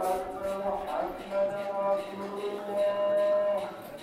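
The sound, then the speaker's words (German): A muezzin's call to prayer, heard several times a day in the old town (medina) of a Moroccan town: a single male voice holding long, drawn-out chanted notes with slight pitch bends, steady and fairly loud, with a faint hum of surroundings beneath. “Mehrmals am Tag hört man den Muezzin zum Gebet rufen.”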